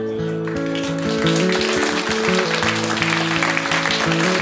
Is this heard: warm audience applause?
yes